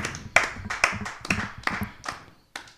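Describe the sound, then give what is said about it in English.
A small audience claps for a group of middle-aged nerds being introduced, with sharp, uneven hand claps overlapping in a loose, scattered rhythm for a few seconds before thinning out. No one speaks. “Now put your hands together for a bunch of middle aged nerds who should have probably moved on in their lives.”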